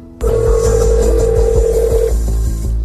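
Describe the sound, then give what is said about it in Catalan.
A telephone call being dialed by Alexei Navalny: a loud, steady electronic tone holds for about two seconds, then cuts off, with faint rhythmic clicks underneath and no voices. “els números de telèfon, i és el mateix Navalny, sense amagar qui és, qui truca el primer per eh, informar-se.”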